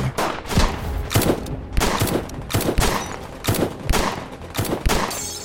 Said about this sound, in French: Le bruit de coups de feu couvre les cris de Blanche, la femme de Buck, en pleine crise hystérie.